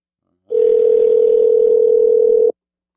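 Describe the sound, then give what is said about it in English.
A steady, unbroken telephone dial tone hums loudly for about two seconds as a call is placed to a guest, then cuts off abruptly; no voices are heard. “Hopefully, I phone him right.”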